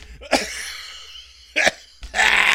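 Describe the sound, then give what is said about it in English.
A person chokes and coughs in a few sharp, raspy bursts, ending in a longer strained hacking sound. “don't choke. Cough up the hairball.”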